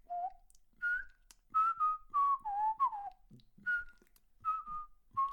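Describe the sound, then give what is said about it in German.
Someone whistles the Löwenzahn melody, a run of clear tonal notes that glide up and down in pitch, some held and some quick, with brief pauses between phrases and no talking. “Ist das Löwenzahn?”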